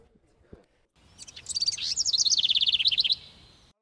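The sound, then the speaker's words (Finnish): Recorded birdsong played in a men's restroom starts after a brief quiet moment: a bright, high warble that breaks into a rapid, even trill of repeated chirps. It is clear, with no talking. “Me voidaan sillä mennä, äänittämään tuota Miesten vessan linnun laulu, joka rauhoitti mua kivasti.”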